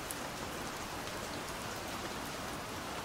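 Steady, even rain falls at night without pause, a dense hiss of countless drops hitting a surface. It holds a constant loudness throughout, with no voices or thunder.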